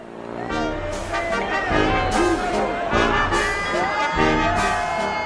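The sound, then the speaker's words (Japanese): A large crowd at the Oktoberfest beer festival cheers and shouts, with bursts of loud whoops and voices rising and falling over a constant dense hubbub. “えーオクトーバーフェスといいまして、うん、毎年その9月とか10月末から10月にかけてですね、ビールのお祭りですね、ミュンヘンのやつが一番有名なんですけれども、えー、そこの、えー、オクトーバーフェスト .de というえ主催者のですね、はい、えー、方からちょっとご了解いただいて、えー、撮ったそのお祭りの模様の音声ですね。”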